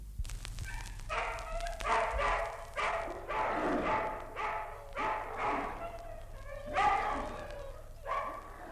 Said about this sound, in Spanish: en la oscuridad, de cien perros a la vez se oía el roer de los dientes, el gruñido de gusto, el ruido de las lenguas.